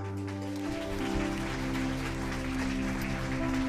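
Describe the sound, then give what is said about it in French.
A church audience applauds steadily, a dense, crackling wash of clapping that holds for several seconds with sustained musical notes playing underneath, celebrating new members welcomed into the church at a morning communion service. “Est-ce qu'on peut applaudir ça”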